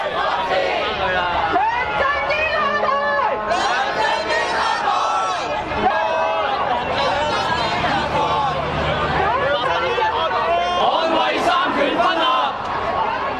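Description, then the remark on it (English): Thousands of street protesters in Hong Kong shout and chant together, many voices overlapping in a loud, steady roar that carries on without a break. “Thousands protested in the streets of Hong Kong last month against an expected local court ruling directed by Beijing that blocked two young pro autonomy activists from taking seats in the legislature”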